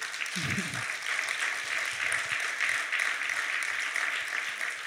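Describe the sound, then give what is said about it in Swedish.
Steady applause from an audience fills the whole stretch, a dense, continuous patter of many hands clapping at moderate loudness, with a brief low voice murmur near the start. “jag tror nästan att jag skulle vilja att vi ger dem en applåd. Ja, det gör vi.”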